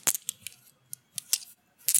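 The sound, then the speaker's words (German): Glass stones clack against one another as a typical ASMR sound, a loose, irregular series of crisp, bright clicks, fairly quiet, with a few short pauses between clusters and no voices. “Also ein typisches ASMR-Geräusch, was Leute sehr gerne mögen, ist wohl das Aufeinanderklackern von, in diesem Fall, ich glaube, es ist Glas, Glassteinen.”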